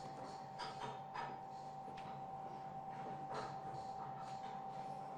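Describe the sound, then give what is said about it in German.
Workshop noise of apprentices filing and milling metal on nearly finished workpieces, razors: a steady mechanical hum with a thin sustained whine, broken by scattered scraping and clicking strokes, with no voices. “Während die einen über den Nussknacker nachgrübeln, feilen und fräsen die anderen Azubis schon an fast fertigen Werkstücken, an Rasierern.”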